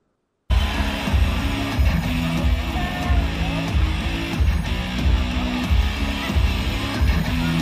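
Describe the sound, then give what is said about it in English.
The wrestling entrance theme of Tommaso Ciampa, NXT champion, kicks in abruptly after a brief silence, loud and driving with a steady rhythmic beat and layered instruments playing continuously, with no voices over it. “We all know it but he does have a theme song now, Triple J. You want to hear some of it?”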